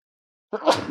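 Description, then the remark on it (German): A single sharp sneeze bursts out after a moment of silence, loud and breathy, trailing off quickly. “Gesundheit? Danke.”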